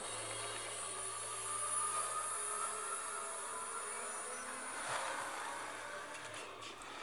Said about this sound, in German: Man hört, dieser Sound, der immer höher wird.